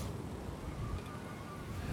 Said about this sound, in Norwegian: Ja, det tok ganske bra i vind der. Vi, det er mer enn frisk bris. Det. det er mer enn frisk bris. Her er det faktisk en kuling, sikkert. Og for å si det rett ut, vi ble blåst ganske radig rundt her nå.